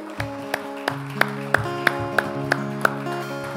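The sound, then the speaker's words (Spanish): Sharp, evenly spaced claps, about three per second, ring out over sustained keyboard chords as a church audience applauds the King of Kings, clapping in time with music. No one speaks. “Vamos a dar un aplauso al Rey de Reyes.”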